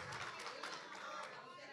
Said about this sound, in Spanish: No, pero están aplaudiendo, pero no, no, nos quedamos esperando el Redentor, ¿verdad?